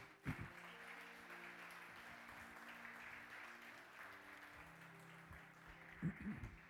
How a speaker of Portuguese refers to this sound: Aleluia, aplauda bem forte a Ele, amém.